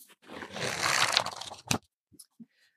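A quick riffle through the pages of books, including Robert McKee's book Story: about a second and a half of dense, papery rustling, then a sharp flap and a couple of soft taps before silence.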